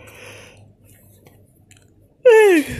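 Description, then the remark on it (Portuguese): A loud yawn near the end, ending in a voiced groan that slides downward in pitch, after about two seconds of quiet rustling over a faint low hum. “Isso aqui foi um bocejo que eu estou com sono.”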